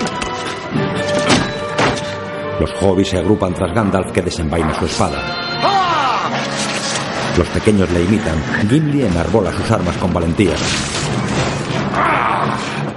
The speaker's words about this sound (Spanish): Todos esperan en guardia mirando la puerta que poco a poco se resquebraja.